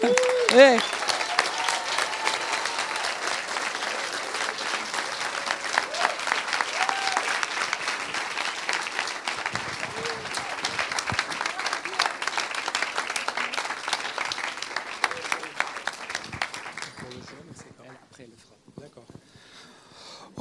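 An audience breaks into sustained, dense applause for the Lord, many hands clapping steadily for about seventeen seconds before it thins out and fades away.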